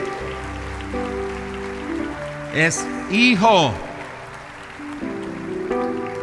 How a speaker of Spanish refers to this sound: Los hijos de Dios esta noche, honrenlo a Él con un fuerte aplauso esta, en esta hora, porque usted